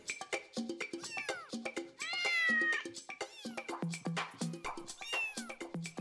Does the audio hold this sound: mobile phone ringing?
no